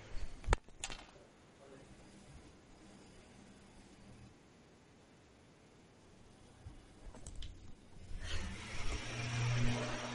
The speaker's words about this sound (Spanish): O sea, ahora están haciendo una obra eh, justo en mi, eh, enfrente de mi puerta, tío. Ay, Dios mío.